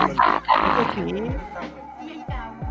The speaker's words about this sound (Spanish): ese perro no hablaba, pues, weón. Esa cuestión pues, igual es heavy porque el perro lo, lo, lo pues, weón. Le, ponían, lo apretaban del cogote y ahí, y ahí gruñía. Y el perro al ah, gruñir hacía ese efecto.